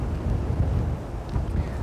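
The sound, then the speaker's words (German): Strong wind gusts roar across the microphone outdoors in an open area, a steady low rumble with slight surges in loudness, continuous with no voices. “So, der Wind wird jetzt ein bisschen stärker.”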